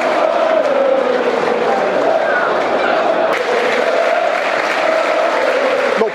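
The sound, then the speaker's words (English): Millwall supporters at a football match against Reading applaud a player walking around the edge of the pitch, a steady, loud wash of clapping and crowd noise that holds evenly for about six seconds, with a brief sharp crack midway through. “He's walking around the edge of the pitch to some applause from the Millwall side.”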